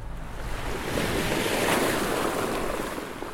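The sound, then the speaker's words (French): A tidal bore surges along the Garonne river, making large waves, a broad roar of rushing, churning water that swells after the first second and holds steady, with some wind buffeting and no voices. “Alors là, euh, on a les mascarés aussi. Donc ça fait des grandes vagues.”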